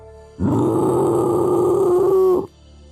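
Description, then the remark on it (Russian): A monstrous dog, its laughter turning into a gloating cry, lets out one loud, hoarse cry, held for about two seconds at a fairly steady pitch with a rough, growling edge, starting and stopping abruptly. No one speaks. “Но пес, видимо, решил, что с меня еще недостаточно, потому что его хохот сменился злорадным хриплым криком”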